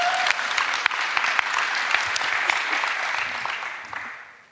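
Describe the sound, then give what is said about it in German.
An audience claps steadily for the technical crew, a dense wash of many hands at a fairly even loudness for several seconds before tapering off at the end. No one speaks over it. “Ein Applaus an die Technik, weil die machen einen richtig guten Job.”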